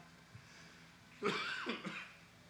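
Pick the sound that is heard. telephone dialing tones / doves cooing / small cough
small cough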